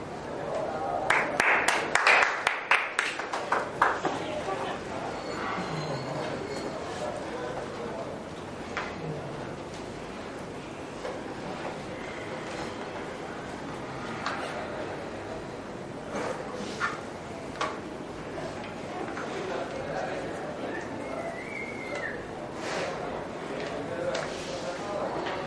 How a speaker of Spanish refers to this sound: agradezco un montón el aplauso, pero es un momento de silencio, de recoger y después ya.